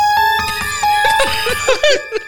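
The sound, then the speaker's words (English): A melodic electronic ringtone plays, a run of bright, sustained synthetic notes that shift in pitch for a couple of seconds with no one talking over it. “Is that your phone or something?”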